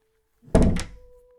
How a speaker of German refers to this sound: Die beiden Wanderer suchen ein Obdach für die Nacht. Einer der beiden klopft mit seinem Wanderstab an eine Tür nach der anderen und eine Tür nach der anderen verschließt sich ihnen.